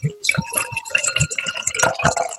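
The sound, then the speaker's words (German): Unfiltered southern German Dunkel beer poured into a glass: a run of uneven, gurgling glugs and splashes with a bright fizzing hiss, fairly loud and steady for a couple of seconds. “Jo, ich mach's mal auf. Äh, mal auf hier. So. Dann schütte ich's mal ein.”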